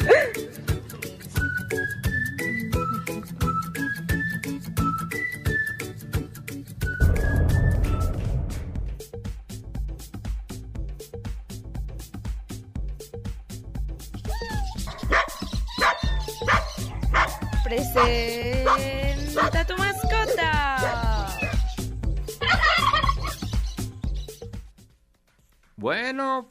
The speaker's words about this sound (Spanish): su perrito Stinky, que hace berrinche porque su papá le gritó y ya no quería comer